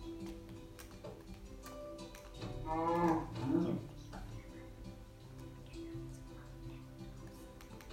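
A single drawn-out moo from a cow in a video game rises in the middle, clear, over a soft steady background with faint ticking taps.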